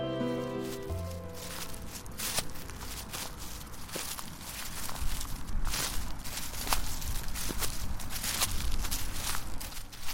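Steady footsteps crunch and shuffle through dry autumn leaves, a continuous crackling rustle with regular step accents, starting after a brief fading musical tone at the opening. No one speaks.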